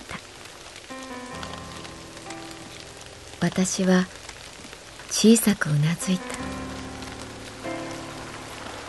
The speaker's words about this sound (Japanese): 雨は勢いを止めなかった私のウィンドブレーカーに音を立てて跳ねる森の木々たちも雨に打たれてざわざわと落ち着きをなくす